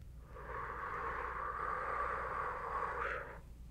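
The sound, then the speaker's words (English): A long, steady, deep exhale of about three seconds, fairly loud, airy and even throughout before tapering off at the end. No one speaks. “One more time, we're going to do a really, really deep breath, okay?”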